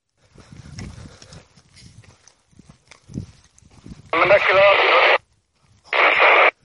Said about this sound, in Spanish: Veo un respingo cada vez que se produce la interferencia.